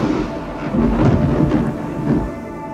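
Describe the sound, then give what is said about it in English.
Deep rolling thunder rumbles through, swelling and fading in long low waves, with a faint wash of rain-like hiss underneath. No voices are present. “Lightning shot out from it, and peals of thunder.”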